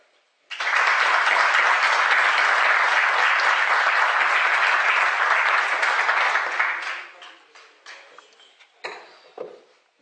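Loud, sustained applause from an audience starts abruptly and fills the room for several seconds, then thins out into scattered claps and a few fading hand sounds.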